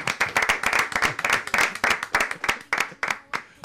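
Audience applause welcoming a guest on a programme: a dense patter of many hands clapping steadily, then thinning toward the end into fewer, sharper individual claps. No voices are heard.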